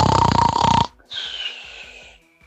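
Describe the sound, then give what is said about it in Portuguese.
A loud, rough snore rasps for nearly a second, then gives way to a softer, whistling exhale that trails off, likely a person imitating someone dozing off. No one speaks. “Soneca, na hora que a falar dormiu, hein?”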